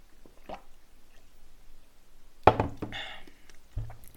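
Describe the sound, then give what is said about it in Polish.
A short, wet slurp of someone sipping a drink, followed by a soft thunk like a cup being set down, after a moment of near silence. “A my przejdźmy do mm, top 5 lig, łyk napoju.”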